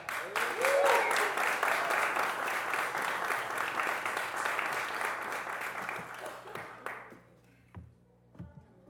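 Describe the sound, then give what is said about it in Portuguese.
A comedy show audience at the Nathan Show applauds loudly and steadily for about seven seconds to welcome comedian Patrick Maia, with a brief cheer early on, before the clapping thins out to a few scattered claps and quiet. “Então façam muito barulho para Patrick Maia.”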